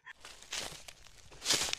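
approaching footsteps

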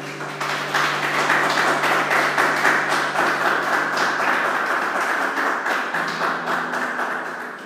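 audience applauding

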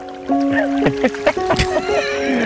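car engine being started

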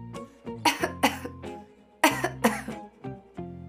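coughing

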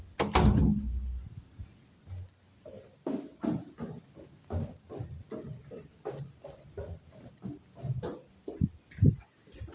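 door being closed

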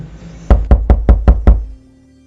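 knocking on a door

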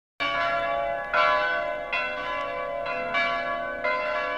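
church bells ringing

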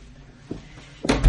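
door opening

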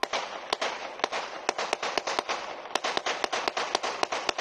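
pistol gunshots

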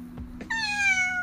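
cat meowing

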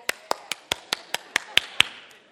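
audience clapping

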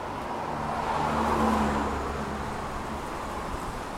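car interior road noise

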